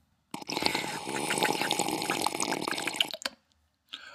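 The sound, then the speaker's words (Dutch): Someone sips water from a glass: a steady wash of liquid lasting about three seconds, with a brief wet splash shortly afterward. No one speaks. “pakte een glas water en stak zijn kleinste pinkachtige veertje uit en nam een slok.”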